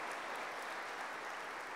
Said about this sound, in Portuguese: Esse é um culto profético, ele está aqui. Pode aplaudir mais forte um pouquinho, porque eu quero dizer algo.